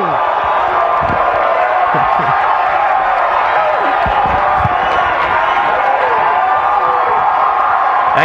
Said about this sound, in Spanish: ¡Jerry! ¡Jerry! Y la gente gritaba Jerry, Jerry.